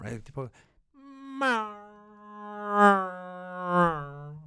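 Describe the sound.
A voice imitates an airplane with a sustained, buzzing hum that swells and fades over a few seconds, following a brief spoken burst at the start.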